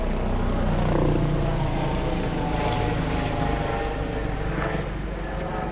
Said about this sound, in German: Das ist gerade ein Hubschrauber.